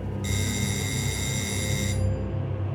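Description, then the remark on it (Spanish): A doorbell rings with a single sustained, bright electronic tone lasting under two seconds, then cuts off, leaving only a low steady rumble in the background. No one speaks. “Me dirigía a la ducha cuando sonó el timbre.”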